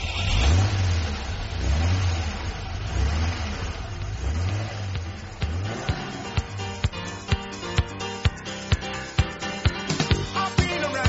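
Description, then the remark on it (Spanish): A car engine is started and revs up and down several times, loud, then settles into a steady rhythmic ticking as it idles. No one speaks. “Así que, os parece, nos vamos rápidamente, arrancamos el coche y hablamos de la actualidad de esta semana.”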